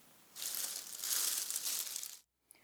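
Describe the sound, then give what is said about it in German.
A steady burst of rustling in the bushes next door, crisp and crackly like leaves being pushed aside, lasting about two seconds before cutting off abruptly with a tiny tick after. “Es raschelte nebenan im Gebüsch.”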